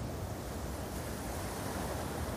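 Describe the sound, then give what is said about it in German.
A steady, dense roar of rough Pacific surf and rushing wind, with rainstorms whipping over the churning waves near the equator between Australia and New Zealand, loud, with no distinct individual wave crashes and no voices. “Regenstürme peitschen über die aufgewühlten Wellen hinweg.”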